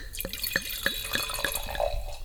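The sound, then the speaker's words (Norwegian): Wine from a freshly uncorked bottle glugs into a glass as it is poured for another person, a quick steady run of about six bubbling gulps, fairly quiet, with no talking over it. “Ja, og vi er Nå skal jeg helle opp til deg,”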